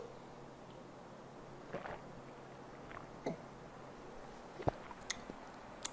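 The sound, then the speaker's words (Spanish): Quiet mouth sounds of someone sipping and swallowing a mouthful of water, a few soft wet gulps and clicks scattered over several seconds against a low steady background hum. “Déjenme tomarme un buche de agua, aleluya.”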